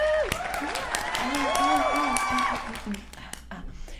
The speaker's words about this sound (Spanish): Aplausos y fanfarrias.